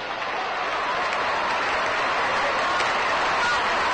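Dodger fans at a ballpark clap steadily in the background during a baseball game, a dense, continuous wash of many hands, with a faint murmur of voices mixed in, holding an even loudness throughout.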